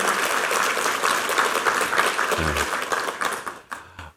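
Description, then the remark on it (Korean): An audience applauds to encourage four choir conductors who performed a special song on the last day of a special revival week, many hands clapping in a dense, steady wash that holds loud for about three and a half seconds before thinning out and stopping. “일주일 내내 또 솔로로 하고 또 마지막 날 이렇게 특순으로 주께 영광 돌린 우리 네 분의 지휘자들에게 한번 격려 박수 부탁합니다.”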